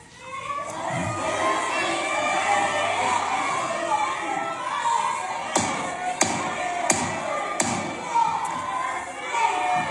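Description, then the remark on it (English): A large crowd of protesters in the gallery of a legislative chamber shouts and yells continuously and loudly, with several sharp knocking thuds cutting through the din midway. “Our guests will come to order. No, they won't.”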